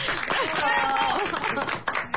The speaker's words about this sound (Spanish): Y ustedes aplauden.